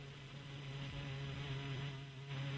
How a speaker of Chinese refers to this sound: 这是他的 彩铃是一个苍蝇是吗？你他妈在逗我吗？